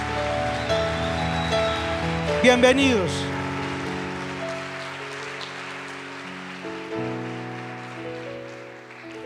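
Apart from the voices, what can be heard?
audience applause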